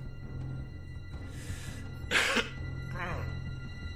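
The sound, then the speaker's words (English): A single sharp, fairly loud cough bursts out near the middle, preceded by a softer breathy exhale and followed by a brief throaty vocal sound over a low steady hum. “As I was already giggling, and to a lesser extent coughing with my outer tongue, I thought it best to carry on using it.”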